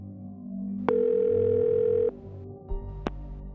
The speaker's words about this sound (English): So, the Levys picked up the phone, then dialed.